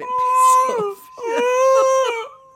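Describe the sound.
A person's voice imitates the whining of Poppy, a dog, in two drawn-out, high-pitched whimpering cries, each about a second long with a short gap between them, fairly loud.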